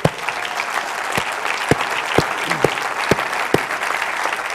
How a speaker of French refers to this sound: Est-ce qu'on peut donner une bonne main d'applaudissement?